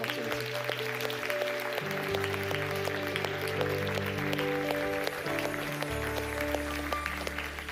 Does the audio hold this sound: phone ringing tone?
no